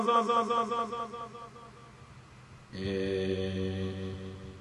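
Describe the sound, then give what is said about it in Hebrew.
Voices drenched in a heavy echo effect like a wedding hall: a warbling, wavering tone for a couple of seconds, a brief dip, then a louder sustained, ringing drone that hangs in the air. “הד חתולות? למה שומעים אותנו הד חתולות?”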